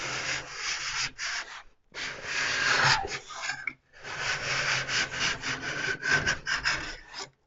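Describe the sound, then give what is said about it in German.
A file scraping along a ski edge to straighten it, each long, continuous stroke pulled through in one go with pressure, about three of them separated by brief pauses, with a steady, loud, gritty rasp and no voices. “Und wirklich dann beim Ski mach, äh, beim Kante richten einfach alles in einem Zug durchziehen.”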